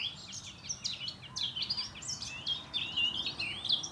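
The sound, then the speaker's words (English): A busy chorus of birds singing and chirping on a patch of common land, with overlapping high, bright trills and tweets from several directions, moderately loud over a soft outdoor background hum. “But as you look around and you suddenly see the spots from where the birds are singing, and you could hide a hundred nightingales in there and you wouldn't see one.”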